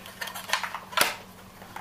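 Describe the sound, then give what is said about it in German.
A plastic double cassette case, made to hold two cassettes side by side, is handled, with several light clicks and rattles and one sharp, louder snap in the middle as it is opened and shut. A faint low hum runs underneath. “Es gab aber auch noch Kassettenhüllen, das war eine Doppelhülle. Das heißt, da passten zwei Kassetten nebeneinander rein. Die klangen dann gleich mal so hier.”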